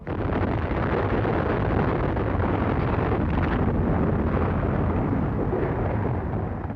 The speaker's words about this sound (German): Little Boy explodiert 580 Meter über der Innenstadt von Hiroshima. Erst zuckt ein greller Blitz durch den Morgenhimmel, dann fegt eine gewaltige Druck- und Hitzewelle über die Stadt hinweg.